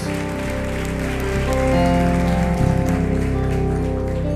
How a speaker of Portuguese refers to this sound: Você pode aplaudir ao Senhor, glorificando a Ele por isso?